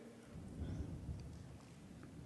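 Low, rolling thunder rumbles steadily throughout, swelling briefly partway through, with a faint wash of rain-like hiss above it and no voices.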